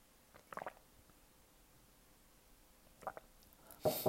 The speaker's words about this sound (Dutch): Sorry, een slokje water.